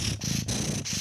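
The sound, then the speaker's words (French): A person imitates the purr of a cat named Moussaka with a low, rolling throaty rumble, delivered in about three close, steady bursts separated by brief breaths, fairly loud. “Puis c'est un chat adorable qui ronronnait, là, vraiment”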